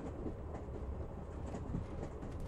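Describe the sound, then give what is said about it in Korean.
A hot, crowded New York subway train rumbles steadily along the rails, a dense low roar with faint rhythmic rattling, constant throughout, with no voices. “찌는 듯이 덥고 사람이 가득한 지하철 안에 대기는 나뿐이다.”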